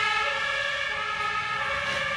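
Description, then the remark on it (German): A loud siren of an emergency doctor's vehicle wails continuously, its steady tonal blare filling the scene with no one speaking over it. “Nein, das Ein ist jetzt äh, Notarztwagen.”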